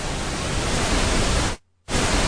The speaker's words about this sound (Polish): Faza, faza szum w lewym, prawym kanale. Przydatne, jak się testuje urządzenie, które świeżo zainstalowaliście i chcecie zobaczyć, czy, czy poprawnie działa.